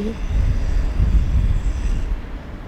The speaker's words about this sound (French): Je suis devant la rade de Brest, il y a des mouettes, il y a des voitures aussi.